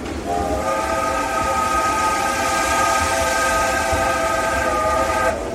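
A train whistle sound effect in an instrumental viola caipira piece sounds in one long, steady blast lasting several seconds over a constant rumbling, hissing rail noise, loud, then cuts off abruptly at the end.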